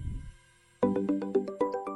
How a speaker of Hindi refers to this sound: तभी मेरे फोन पे एक कॉल आया